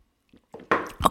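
Someone takes a quick sip of coffee from a mug: a couple of soft, wet slurping and swallowing sounds building to a louder burst, with no talking.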